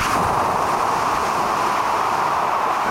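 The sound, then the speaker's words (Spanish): Someone imitates wind with their voice: a steady, loud, rushing hiss that holds unbroken for about three seconds, with no speech around it. “Esto es el viento”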